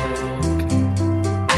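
A slow 1960s pop ballad plays clearly, with a male voice holding long sustained notes over lush, swelling accompaniment. No one talks over it.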